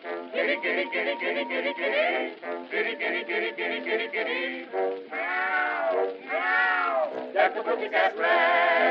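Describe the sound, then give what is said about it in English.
A voice imitates a wild cat caterwauling, choppy yowls giving way to long sliding wails, then more rapid yowling, loud and continuous with a thin, band-limited old-record tone. “That cat done made my bulldog look like a monkey.”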